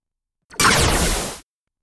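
A single loud sci-fi Dracon beam weapon fires in a harsh, roaring burst lasting about a second, with sweeping downward tones, then cuts off abruptly into silence.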